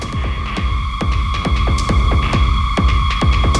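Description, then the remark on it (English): A dark, heavy music track with pounding drums striking in a steady driving rhythm over sustained droning synth tones and a deep low end, loud and without any voices. “Listen to those drums.”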